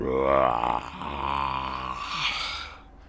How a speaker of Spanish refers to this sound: Estaban sacando unas fotos preciosas entre los cuatro niños cuando de repente oyeron unos grandes pasos detrás suyo. Se quedaron en silencio y oyeron un poderoso rugido.